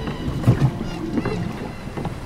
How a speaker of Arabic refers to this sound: وحين صعد ثور وهايمر على متن المركب الضخم بدأ بالتجديف إلى أن وصل المكان الذي اعتاد هايمر أن يصطاد فيه